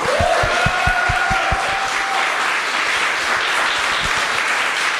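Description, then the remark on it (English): A crowd claps steadily for Rachel Rossi, a dense wash of applause that stays loud throughout, with a few rhythmic low thumps near the start and a faint whistle-like tone early on. “One more time for Rachel Rossi.”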